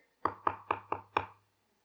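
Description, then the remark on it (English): Five firm knocks on a door in a quick, even rhythm, fairly loud, with a short resonant thud after each rap and silence once they stop; an 11-year-old boy knocking at the door of a children's center before it opens. “and it's Moha at the door”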